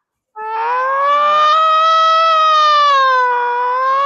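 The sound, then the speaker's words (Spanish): A voice imitates a loud Nextel emergency phone alert alarm for an MTC ministry message, holding a sustained wailing tone that rises slightly and wavers for about four seconds, with no other talk. “Somos el mensaje del ministerio, pues, huevón. Mano, hay que hacerlo completo ahorita, para Josué. Ya, yo te suelto la alarma”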